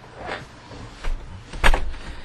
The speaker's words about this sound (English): Why is it everybody's door squeaks?